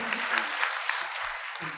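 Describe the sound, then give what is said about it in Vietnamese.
An audience gives a round of applause for the women, a dense wash of many hands with sharper individual claps popping out now and then, sustained at an even level throughout. “Dành cho chị em một tràng vỗ tay.”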